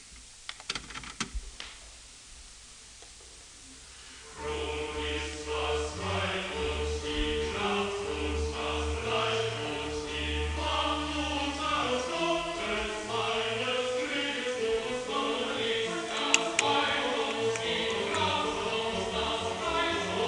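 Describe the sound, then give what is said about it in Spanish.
A recording of the Baroque choral cantata or motet "Nun ist das Heil", number 50 in the Schmieder catalogue, bursts in after a few seconds of faint clicking: full, bright choir and instruments sounding together, loud and steady, with no talking over it. “les voy a hacer oír primero lo que no sabemos es una, motete o parte de un motete o una cantata.”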